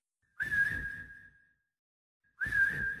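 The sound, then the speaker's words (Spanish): A person whistles twice to call out, the same whistle once used to call Sandy, heard around four or five in the morning; each a sharp rising note that levels into a sustained tone, with a breathy edge and a pause of about a second between them. “El mismo silbido que usaba para llamar a Sandy.”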